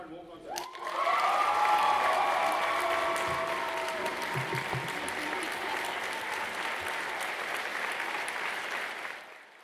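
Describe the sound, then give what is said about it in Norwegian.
A crowd breaks into sustained applause and cheering for the newly elected leader of the Norwegian student organisation Norsk studentorganisasjon, loud and steady for several seconds with voices whooping over the clapping, before it gradually tapers off at the end. “Dette er jubel til studentenes nye stemme.”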